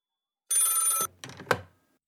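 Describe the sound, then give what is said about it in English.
A telephone bell rings once in a bright, buzzing half-second burst, followed by a short clatter like the receiver being picked up, clear with no talking. “Oh, hang on. That's the Kids Poetry Club phone.”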